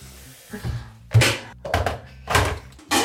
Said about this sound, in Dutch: Ja, ik zet daartoe de eh, waterkoker even aan. Die ga je misschien wel horen.